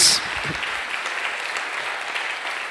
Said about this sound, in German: wollen wir diesen Raum einmal mit Applaus füllen, weil wir wollen Gott die Ehre geben für das, was er in unserem Leben tut.